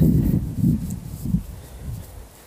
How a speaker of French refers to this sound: c'est qu'il y a un peu de vent, attendez.